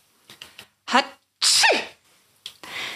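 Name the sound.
sneeze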